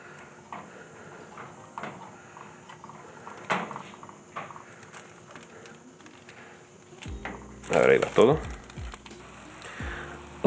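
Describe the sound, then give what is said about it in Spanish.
A homemade energy gel mixture being whisked while ingredients are added little by little: irregular scraping strokes and light clinks over a steady bubbling sizzle, joined late by a brief low humming drone with wavering tones. “Seguimos agregando y batiendo poco a poco.”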